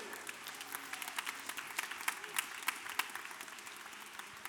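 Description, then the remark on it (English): A large church audience applauds steadily for the Lord at a revival service, a dense wash of many hands clapping at once, with sharp individual claps popping out of the sustained noise for several seconds. “Let's give it up for the Lord one more time.”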